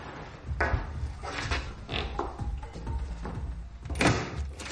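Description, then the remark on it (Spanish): A young woman entering an apartment shuts the door, then a series of metallic clicks and clunks follows as she locks it with a key, slides a bolt across and a chain rattles into place, at an irregular pace, with no talking. “Cierra con llave y echa cerrojo y cadena.”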